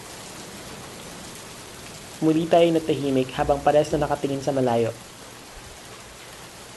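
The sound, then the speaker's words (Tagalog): Rain patters steadily on a galvanized iron (tin) roof of a waiting shed during a thunderstorm, a constant, even hiss running the whole way through, with a man talking over it for a few seconds midway. “Tanging ang paglagatak ng yero ang marinig sa paligid kasabay ng mga panakanak ang pagkulog at pagidlat.”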